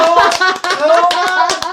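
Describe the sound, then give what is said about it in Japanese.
Applause with a series of sharp, irregular hand claps, heard over a steady, tonal voice-like sound that runs underneath for the whole stretch. “わあ、拍手ありがとうございます。”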